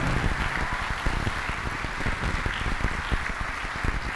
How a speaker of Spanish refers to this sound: Alguien tiene que darle un fuerte aplauso al Señor.